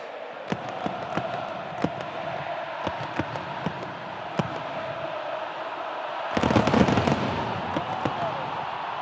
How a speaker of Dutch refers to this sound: Ja, Messi, emotioneel, de bondscoach in tranen, kinderen op het veld, publiek helemaal uitzinnig.